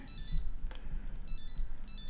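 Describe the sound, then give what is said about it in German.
A mobile phone alarm chimes in short repeating bursts of bright, tinkling electronic tones, with a low background rumble underneath and no talking. “Die Handyuhr. Das ist ein Klimpert.”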